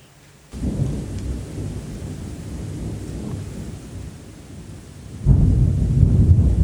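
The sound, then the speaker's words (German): Deep rolling thunder rumbles through steady heavy rain, swelling louder near the end as a fresh peal breaks over the downpour. No voices. “Regen-Meditation ~ die inneren Stürme zulassen”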